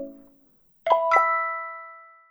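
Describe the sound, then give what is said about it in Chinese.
In a children's audio story, a mobile phone rings with a bright two-note chime as the characters are about to leave a maze garden, the tones sustaining and slowly fading; the call is from Dr. Dingding. A short, lower tone sounds just before it, and no one speaks. “当他们准备要离开迷宫花园时，手机突然响了，是丁丁博士打来的。”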